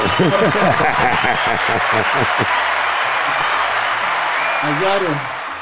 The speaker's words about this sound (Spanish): Un aplauso para Nicky.